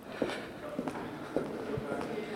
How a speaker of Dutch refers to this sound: Dan lopen we door de ministersgang. Ja, hij is plechtiger dan de ministers zelf hoor. Want wij zijn niet zo plechtig, maar de gang is heel plechtig. Met marmer en prachtige beelden.